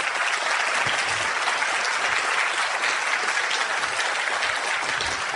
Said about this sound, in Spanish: Y aquí quiero que le dé un fuerte aplauso a Vladimir y Susana Pandura porque ellos...